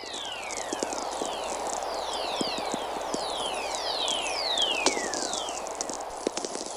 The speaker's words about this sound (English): First, let's listen to the sounds of the whistlers, as they're called by NASA, which is the electrical energy that's generated by thunderstorms 5,000 miles from where these were recorded.